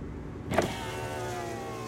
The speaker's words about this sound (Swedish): föraren vevar ner rutan.